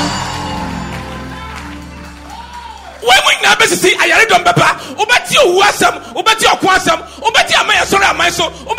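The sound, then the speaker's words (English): A crowd giving a clap offering erupts into loud, sustained screaming at the top of their voices and cheering with clapping mixed in, starting abruptly after a few seconds of soft held musical tones and continuing energetically to the end. “Clap your hands and scream on top of your voice.”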